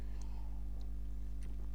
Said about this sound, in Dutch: Even een slokje water.